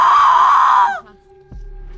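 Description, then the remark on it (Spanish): A voice imitates an agonized scream, a loud, strained, raspy cry sustained for about a second before cutting off abruptly, followed by a brief low thump. “empieza a sangrar mientras está gritando y está tratando de buscar esta última plegaria.”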